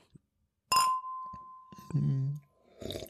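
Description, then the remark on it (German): Two glasses of a bitter Bock beer clink together once in a toast, leaving a clear ringing tone that hangs for about a second, followed by a short murmured voice and a soft rustle. “also Prost”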